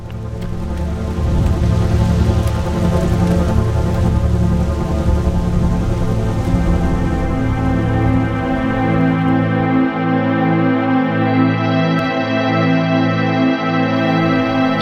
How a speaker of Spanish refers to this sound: Una lluvia leve y sostenida se confunde con el sudor de Justino